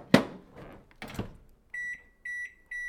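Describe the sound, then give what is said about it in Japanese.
A microwave oven door thuds shut with a clunk, followed by three short, clear electronic beeps from its keypad as it is set to heat an uncovered gummy mix and water at 500 watts for 60 seconds, with no one talking. “これをえっと電子レンジで加熱します500ワットで60秒はいこのまま何も蓋もせずいいのかな”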